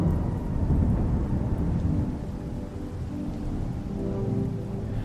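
A thunderstorm: deep, rolling thunder rumbles continuously beneath a steady wash of heavy rain, loud, with no voices.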